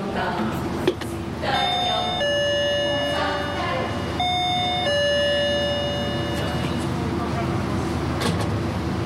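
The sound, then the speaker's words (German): A doorbell at an apartment block door chimes twice, each ring a bright two-tone ding-dong, with no one answering, over a steady hum of background noise and faint street ambience. “Auch nicht auf das zweite Klingeln.”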